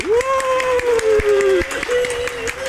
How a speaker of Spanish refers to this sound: Démosle un fuerte aplauso para recibir a los chicos de ….